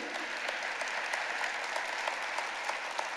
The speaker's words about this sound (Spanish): ¿Cuántos creen que Dios es un Dios de segundas oportunidades? Denle un aplauso a Dios. Anímese.